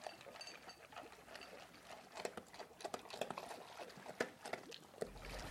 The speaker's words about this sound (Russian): После такого активного и жаркого вечера собака с радостью утыкается в миску с едой, которую ты всегда заботливо носишь с собой